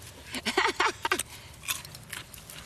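Crisp crunches as someone bites into raw Jerusalem artichoke (topinambur) dug from the ground: a quick cluster of loud snapping bites, followed by softer, scattered chewing sounds.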